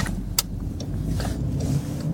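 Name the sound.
car driving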